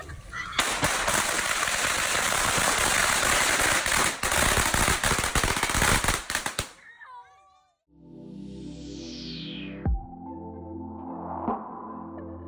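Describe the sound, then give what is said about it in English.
A long string of firecrackers set off for Chinese New Year crackles and bangs in a loud, dense, rapid barrage for several seconds, then cuts off, leaving quieter whistling and humming tones behind. “But now, we will make the big booms for Chinese New Year.”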